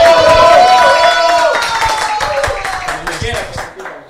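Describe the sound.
A crowd bursts into dense, rapid applause, with cheering voices and a whoop rising over the clapping at first, then the clapping slowly thins and fades over about four seconds.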